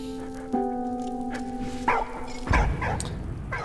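A video game dog barks and yips a few times in short bursts, clear, over a sustained tonal drone and soft background game sounds.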